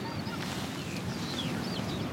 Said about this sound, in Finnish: Toi kilkutus oli tundrahanhi. Tossa ne tulee. Joo. Katsotaan tuleeko enemmän ääntä. Mutta nää tulee taas ihan päältä.